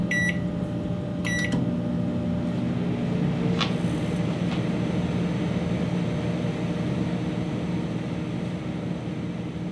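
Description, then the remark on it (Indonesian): A microwave oven hums steadily with a low mechanical drone, while a couple of short, high electronic beeps sound near the start. “Mau menghangatkan makanan, nggak perlu cari panci dan nyalain kompor. Cukup pakai microwave.”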